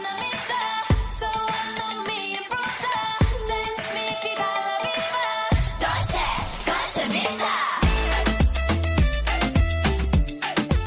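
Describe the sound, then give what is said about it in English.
A loud, upbeat pop song plays throughout, with a singer's voice over dense instrumentation, punchy drums and deep bass that drops out briefly before surging back in. The lyrics are in English, Korean, Spanish, Spanglish and Spitalian. “So these lyrics are in, in English, Korean, Spanish, Spanglish, and also Spitalian.”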